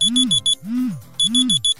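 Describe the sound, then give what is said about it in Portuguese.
A phone alarm set for 6 a.m. every day goes off in quick bursts of four sharp, high-pitched beeps, alternating with low, swooping hum-like tones that rise and fall, repeating in a steady loud pattern. “Eu sou responsável por seu telefone despertar todos os dias às 6 horas da manhã”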